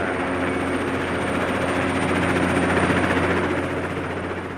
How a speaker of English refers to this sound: The helicopter touches down on a landing pad on the top deck of the rig.